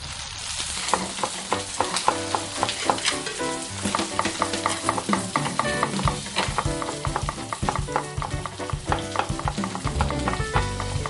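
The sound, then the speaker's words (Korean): Hanwoo (Korean beef) sizzles steadily on a hot grill, a dense crackling hiss with rapid popping spatters, fairly loud throughout with no voices. “네, 벌써 지글지글 소리가 나죠.”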